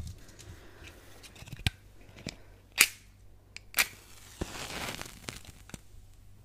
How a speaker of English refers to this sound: I do like the sound of striking matches